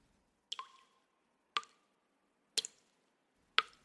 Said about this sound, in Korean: 시시로 퐁, 퐁 하고 떨어지는 수도의 물방울 소리가 쓸쓸하게 들릴 뿐